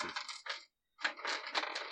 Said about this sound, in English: I'm gonna roll his attributes. Yeah, go for it. Let me see if I have. I think I have some d6s.